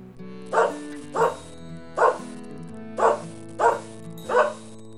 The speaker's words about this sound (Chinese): 嘿，大家都猜对了吧？这个就是 go 哎 叫诶， go 哎， 叫诶。 答案就是狗狗啦。